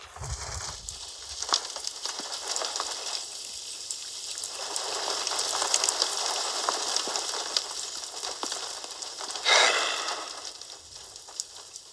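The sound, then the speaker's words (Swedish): Steady rain hisses and patters continuously, with dense crackling droplets that swell slightly in the middle and a brief louder gush near the end. No voices are heard. “Jag tycker om när det regnar. När det regnar på sommaren.”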